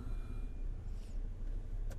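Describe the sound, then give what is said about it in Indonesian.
A luxury car drives by with a steady, deep engine rumble that holds fairly even throughout, followed by a brief sharp click near the end. “ini nah. mobil mewah tapi kelakuannya kayak aduh”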